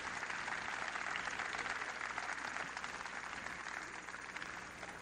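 A crowd at a religious gathering applauds for the Lord steadily for about five seconds, a dense wash of clapping that stays loud and even throughout, fading only slightly near the end, with no one speaking.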